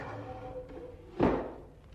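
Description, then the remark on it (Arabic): A door is shut with a single dull thump that rings out briefly before fading, preceded by a faint, steady low hum in the background. “أقفل الباب وراءك”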